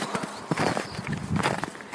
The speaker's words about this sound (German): Schön durch den knirschenden Schnee kann man auf jeden Fall.